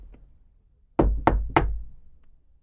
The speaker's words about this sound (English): I thought that they looked kind, so I knocked on the door.